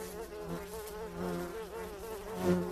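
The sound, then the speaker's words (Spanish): A steady buzzing of fruit flies, droning continuously with slight wavering in pitch and a brief swell near the end, with no voices. “Eh, hicieron uno con las moscas de la fruta.”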